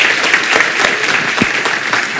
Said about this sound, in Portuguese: Uma salva de palmas para as mães aqui, para todas vocês